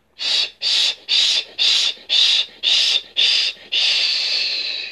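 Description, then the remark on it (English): A series of seven quick, forceful breathy puffs in a steady rhythm, followed by one long, sustained exhale of blown-out air with a bright hissing tone, done as a qigong breathing exercise. No talking. “and blow all the air out and then take a deep breath in and do it again.”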